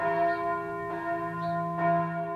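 church bell ringing

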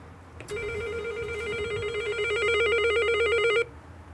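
doorbell ringing

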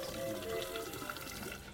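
water running

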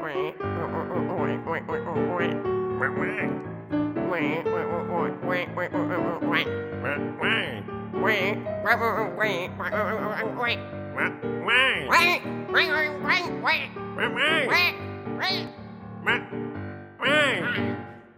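duckling quacking

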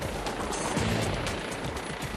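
helicopter

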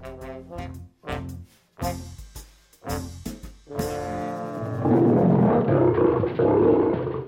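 lion roaring

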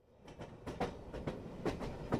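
train clattering along rails

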